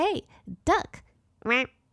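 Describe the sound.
A human voice imitates a duck, giving a few loud, nasal quacks in an uneven rhythm with short gaps between them.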